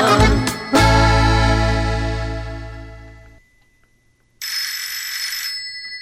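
A loud, resonant tonal chime fades out, and after a short silence a telephone, said to have broken down, rings in a steady, bright, buzzing burst that continues to the end. No one speaks.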